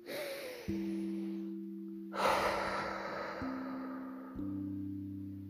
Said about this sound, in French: Puis vous inspirez profondément et soufflerez fortement pour vous dynamiser.